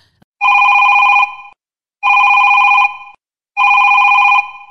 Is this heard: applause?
no